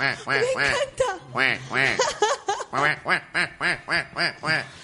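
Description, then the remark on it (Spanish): A person imitates a duck with a long series of nasal, buzzy quacks, loud, starting in uneven bursts and settling into a steady rhythmic run of short calls. “El pato empieza...”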